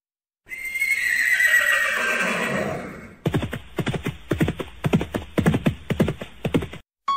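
A loud, drawn-out horse whinny with a falling pitch, followed by a quick run of hooves clip-clopping in a steady rhythm on a hard surface, with no talking.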